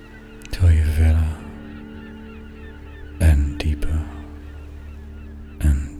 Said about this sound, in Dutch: En nog steeds de vogels hoort